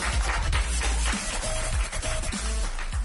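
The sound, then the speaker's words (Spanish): Steady, dense clapping from an audience in the children's room of the Biblioteca de México fills the whole stretch, loud, with faint tonal sounds drifting underneath. “Más grande, que se más fuerte ese aplauso.”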